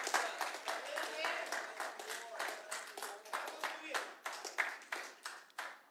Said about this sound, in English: Can we clap our hands all over this house?